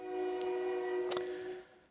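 A passing train's horn sounds in one steady, sustained blast, moderately loud, with a brief clank partway through before it fades out. No one speaks.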